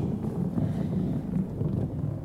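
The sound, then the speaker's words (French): Steady wind gusts on a beach buffet the microphone with a deep, continuous rumble that swells and eases slightly, with no voices. “Le vent souffle sur les plages.”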